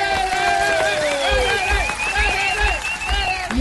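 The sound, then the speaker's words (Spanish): A crowd at a show sponsored by the Mis últimos pasos nursing home applauds steadily for the performers with a dense wash of clapping, mixed with loud cheers and whoops from many voices, sustained throughout. “El aplauso grande para ellos.”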